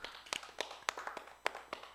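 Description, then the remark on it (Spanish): A short, sparse round of hand clapping: about eight sharp, crisp claps in an uneven rhythm over two seconds, fairly quiet, with no voices over them. “Venga, aplausos.”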